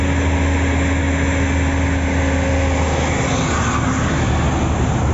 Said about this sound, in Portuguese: Ó, passando um caminhão aqui do lado o tempo inteiro.